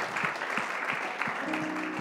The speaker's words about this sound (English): Let's clap our hands and welcome them. Amen.